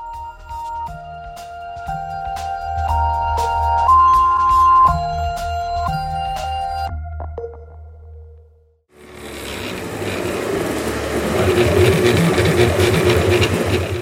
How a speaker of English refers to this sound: This is the sound of a printer, but not your standard office job. This printer prints in three dimensions.